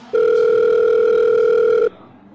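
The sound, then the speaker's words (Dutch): A single steady telephone ringback tone sounds for nearly two seconds, loud and clear, a pure electronic hum with a faint overtone, then cuts off abruptly into quiet line noise. “Dan gaan we Mijke voor bellen.”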